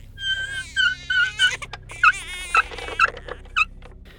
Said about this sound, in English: Uh, Mia makes her way down to the storage basement. While she is down there, you hear the sound of her baby crying.